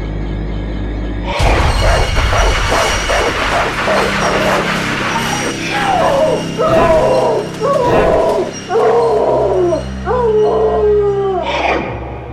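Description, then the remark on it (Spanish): A dog barks frantically in rapid bursts, then breaks into high, drawn-out whines and whimpers, loud with no one talking. “Y lo peor de todo es que el perro empezó a ladrar furiosamente.”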